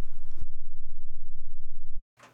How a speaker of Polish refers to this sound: jeżeli teraz zagram taki bardzo niski dźwięk, uwaga, zagrałem dźwięk o częstotliwości 8 Hz. Mam nadzieję, że kodek MP3 go przeniesie. I ten dźwięk powinien wprawiać ten głośnik w drganie, które można ręką wyczuć.